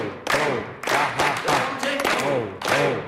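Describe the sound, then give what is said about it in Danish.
Steady rhythmic hand clapping runs beneath a voice loudly chanting "ho, ho, ha, ha, ha" in a repeating pattern as part of a clapping exercise, claps and chant locked together in a lively, even beat. “Grunden til, at vi vælger det, det er rent faktisk, at også herinde i vores håndflader, der er der også nogle akupunkturpunkter som når vi begynder at klappe i vores hænder på den måde, så vil vi også få gang i vores blodomløb.”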